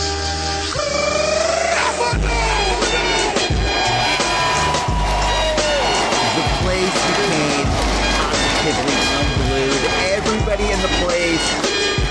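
A wrestler's entrance theme blares loudly at a live wrestling show as he comes out, with punchy brass-like melody lines over heavy, repeating bass hits and drums, driving and continuous for the whole stretch.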